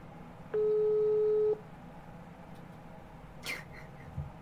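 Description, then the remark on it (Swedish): A phone rings with one steady electronic tone lasting about a second, loud, followed by near-silence and a faint brief squeak a few seconds later. “Dennis Slottermål ringer det tydligen.”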